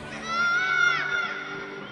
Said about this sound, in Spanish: Todos se paralizaron y buscaron el origen de aquel grito. Nadie sabía quién había gritado y no se veía a ningún niño asustado o llorando. De pronto, se escuchó nuevamente el grito desesperado de un niño.